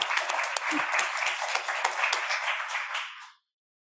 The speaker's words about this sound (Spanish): Ay, sí, aplaudir.